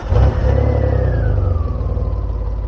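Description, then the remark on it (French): A powerful Porsche 928 V8 car engine revs loudly, its deep rumble holding steady before the pitch slowly sweeps down as it eases off. “La doublure son est tout bonnement le V8 d'une Porsche 928.”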